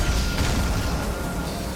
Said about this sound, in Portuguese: E apontou seu báculo para a criatura e gritou: Volte para a forma humilde que merece! Um raio de explosão de energia saiu da ponta do báculo e destruiu o robô.